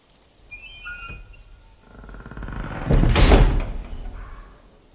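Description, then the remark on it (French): A wooden cabin door, opened by a hunter in total darkness, creaks open with a high, wavering hinge squeak, followed by a heavier scraping rumble and dull thud as it swings wide, with no voices. “Il s'approche, ouvre la porte.”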